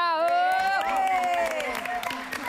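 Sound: audience applause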